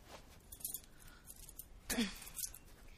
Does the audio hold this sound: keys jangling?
yes